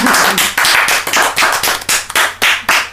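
A group claps together in a steady burst of bright, overlapping hand claps, loud and sustained throughout with a slightly pulsing rhythm and no voices.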